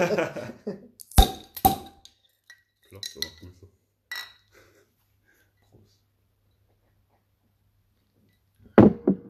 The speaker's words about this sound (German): Klopft